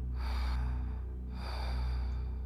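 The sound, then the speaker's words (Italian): Heavy, labored panting: two long, rasping breaths in a row, loud and breathless, from someone tired after running. No one speaks. “Non mi preoccupo di fare piano e respiro affannosamente. Sono stanco dalla corsa.”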